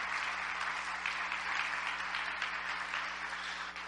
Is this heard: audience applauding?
yes